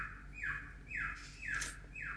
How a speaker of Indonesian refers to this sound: sama nih burung nih berisik banget dia lagi ini coba berkicau mas birahi ini ya. ini burung ini birahi deh ya pokoknya kayak gitu.